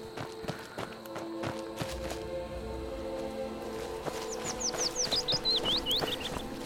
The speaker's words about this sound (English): rabbits, birds. I feel like morning's coming.